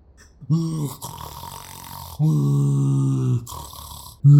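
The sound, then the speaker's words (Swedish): A person imitates a man's loud snoring: two long, rasping, exaggerated snore sounds with a breathy pause between them, then the start of a third. “Alltså han snarkar så över, det är nästan som att han vill driva med mig liksom.”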